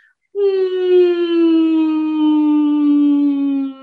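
A single steady hum into the nose so that it vibrates, one sustained low tone held for about three and a half seconds, fairly loud, with a rich buzzy resonance and no words.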